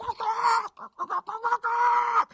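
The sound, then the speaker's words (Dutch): Loud hen sounds from a coop behind a restaurant holding hundreds of small cages, each with about five chickens crammed together: a drawn-out squawk, then a quick run of short clucks, then another long squawk, with nobody speaking. “In het hok stonden honderden kleine kootjes. En in ieder klein kootje zaten wel vijf kippen samengeperst.”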